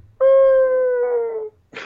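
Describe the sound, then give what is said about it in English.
A loud, sustained moaning tone, like a whale call, in the background at the very beginning of a song, holds steady and then slowly slides downward for over a second before cutting off, followed by a short breathy burst. “Uh, there's just some some like some moaning whale sound in the background.”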